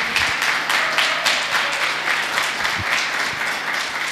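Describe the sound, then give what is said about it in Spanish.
Sustained loud applause from an audience at a church service, given for the people watching from the other side of the screen: a dense, steady wash of many hands clapping with a few sharper individual claps standing out, continuing without a break and with no voices. “Todos los que estamos presentes aquí, ¿qué tal si le damos un fuerte aplauso a toda esa gente que está del otro lado de la pantalla?”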